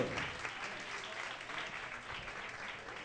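Steady audience applause at the Entregados Live show for a DJ on the turntables and a guitarist and beatboxer, a dense wash of many hands clapping, sustained without breaks and with no voices standing out.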